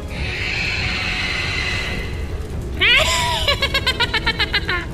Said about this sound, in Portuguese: É, mas é um bicho bem fraquinho, tá? Você vê que ele começa a pegar fogo e sai um, um barulho meio agonizante, assim.